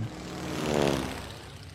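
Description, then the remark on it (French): A propeller airplane drones steadily overhead at night over Paris, flying over the Eiffel Tower around half past midnight in July 1988. Its engine hum swells louder toward the middle as it passes, then eases slightly; no voices, just the continuous mechanical roar. “Soudainement, un frombissement de plus en plus fort emplit le ciel de la capitale.”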